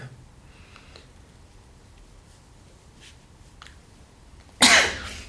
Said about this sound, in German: Ich hoffe, du bist jetzt nicht erschreckt, dass ich jetzt mal kurz niesen musste.